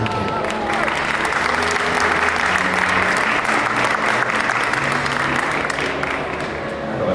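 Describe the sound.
Sustained applause from a large audience welcoming the team of the web series Random, a nominee at an awards event, dense and steady with a faint murmur of voices underneath.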